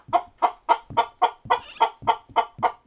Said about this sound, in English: Kids, you know you can't bring chickens in the house. But, Mama, he's our pet.